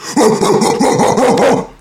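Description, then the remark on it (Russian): A person imitates a charging white-chested bear with a quick series of short, abrupt, guttural roars, about six or seven loud bursts in steady rhythm with no talking, then fades to quiet. “Но Мишка, когда бросается, ну, по крайней мере, белогрудый Мишка, который бросался на меня, пытаюсь сейчас изобразить, издает отрывистые короткие рыки.”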